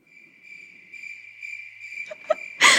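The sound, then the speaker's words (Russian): A lone cricket chirps steadily in otherwise empty quiet, the classic awkward-silence gag, with a few soft knocks near the end before a short burst of rushing noise cuts in. “Ставлю перекати поле.”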